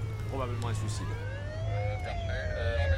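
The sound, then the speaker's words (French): A police patrol car siren, for a patrol car called by radio to 12305 Fifth Helena Drive, wails in long rising and falling sweeps over a steady low rumble of traffic, with a brief burst of voice-like sound near the start. “En descendant San Vincente Boulevard, Clemens demande par radio à une voiture de patrouille de le rejoindre au 12305 Fifth Helena Drive.”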